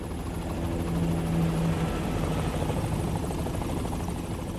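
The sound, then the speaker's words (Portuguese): A helicopter drones steadily overhead, its broad rotor roar filling the whole stretch with a low, pulsing chop and a brief tonal hum rising early on. “Inclusive você abre o seu documentário com a imagem dos urubus, com o som de helicóptero e tal.”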